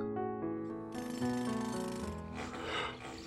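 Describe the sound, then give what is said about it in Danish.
Soft sustained tones of a calm song give way to loud construction noise from a construction site, a rattling, jackhammer-like clatter with harsh scraping and grinding that swells over the fading music. No one speaks. “Hvad er det for noget larm? siger Geo og åbner sine øjne. Lyden kommer fra byggepladsen.”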